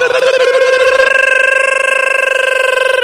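A telephone rings with a loud, steady electronic warble, a buzzy mid-pitched tone trilling rapidly without pause for about three seconds, with no voices.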